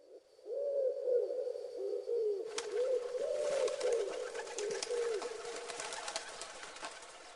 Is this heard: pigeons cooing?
yes